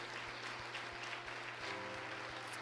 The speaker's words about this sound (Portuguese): Nós te louvamos como igreja e nós aplaudimos o teu nome nessa hora, em nome do Senhor Jesus Cristo.